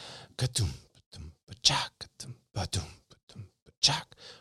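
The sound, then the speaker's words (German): A voice beatboxes a halftime shuffle drum groove with breathy, whispered hits and clicks in a loping, swung rhythm, fairly quiet, with bright hiss-like accents landing on the backbeats. “Und ein Halftime Shuffle geht.”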